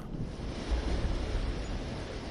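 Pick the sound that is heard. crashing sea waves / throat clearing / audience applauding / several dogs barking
crashing sea waves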